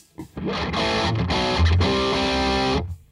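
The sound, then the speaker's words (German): A heavily distorted electric guitar played through an amp's Modern mode, a setting meant for metal players, plays a dense, saturated riff of sustained chords with a thick, compressed high-gain tone, ringing loud and steady for about two and a half seconds before cutting off. “der Modern war ja dann wirklich so, so ein bisschen für die weiß nicht, schon soll für die Metal-Fraktion gedacht”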